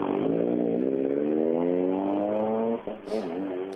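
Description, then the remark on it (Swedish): A rally car reversing, its loud engine whining with a tone that climbs steadily in pitch, then a brief break, a short burst of hiss, and the motor picking up again. “Ja, en backning det är ju tio.”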